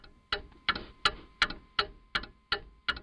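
A clock ticks steadily, eight sharp, evenly spaced ticks about every 0.37 seconds, clear with no voices present.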